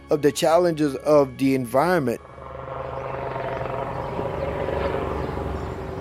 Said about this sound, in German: Täglich fliegen viele Helikopter über die Isle de Jean-Charles. Sie bringen Besatzungen zu den über 4000 Förderplattformen und Bohrinseln vor der Küste Louisianas oder auf das Festland zurück.